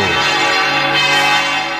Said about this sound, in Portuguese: Ouvinte, preste atenção. Aumenta o volume do rádio. Vamos ouvir os sinos da maior basílica do mundo.